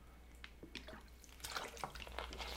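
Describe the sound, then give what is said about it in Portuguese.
Someone drinking water from a glass: soft irregular slurps, trickles and small liquid splashes over a couple of seconds, fairly quiet, with no talking. “não tem nenhum problema, só vou tomar uma água enquanto você descreve aí”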